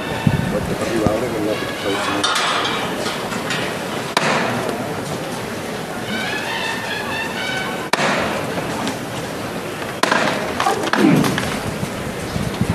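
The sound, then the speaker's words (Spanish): Sharp hammer knocks ring out over a steady murmur of crowd voices, followed by the heavy shuffle and thud of the Nuestro Padre Jesús del Silencio procession float being lifted again at the third hammer knock, on a street lined with a dozen orange trees. “Se va a levantar de nuevo el paso de nuestro Padre Jesús del Silencio, al tercero de martillo.”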